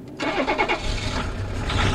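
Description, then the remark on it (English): A Volvo station wagon running on biodiesel made from vegetable oil starts as the ignition key is turned: the engine cranks over and catches, settling into a steady, low diesel rumble with no one speaking. “As Arnold turns the ignition key, the grayish exhaust becomes an almost transparent mist curling out of the tailpipe.”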